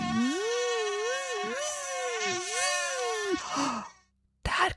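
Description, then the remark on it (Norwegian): A voice imitates a whining mosquito buzz, a sustained, fairly loud hum that wavers up and down in pitch for several seconds, then cuts off before a brief noisy burst. “kommer myggen bzz, og så plagsom bzz, inn i øret bzz, og oppå hodet”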